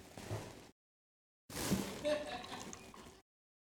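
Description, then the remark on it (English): Coca-Cola soda pours into a glass in two bursts, a short splash then a longer fizzing, gurgling pour, separated by a brief silence. “why don't you have some soda?”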